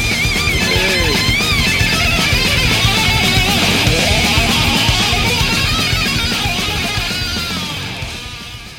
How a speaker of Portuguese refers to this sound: Toca a vinheta!